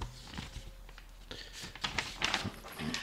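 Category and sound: household object, paper rustling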